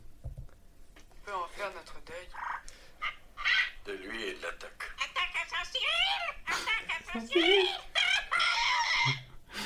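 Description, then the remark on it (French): A parrot squawks and warbles loudly in rapid, shifting bursts that grow harsher and more strained toward the end as it chokes on a pistachio, like sputtering or choking sounds. “à la fin, il s'étouffe sur une pistache.”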